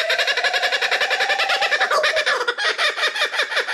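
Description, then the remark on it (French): A kookaburra, a bird that lives in Australia, gives its loud, raucous laughing call, a rapid chain of cackling hoots that rises and churns continuously for a few seconds, without any talking. “Et ça, vous savez ce que c'est Eh bien, c'est le cri d'un kookaburra, un oiseau qui vit en Australie.”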